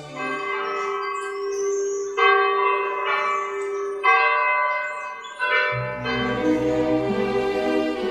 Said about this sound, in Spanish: Por más de seis décadas se ha escuchado en Guarenas el repique de estas campanas dando los tres avisos antes de la Santa Misa. Sus sonidos permanecen indelebles en la memoria de los guarineros.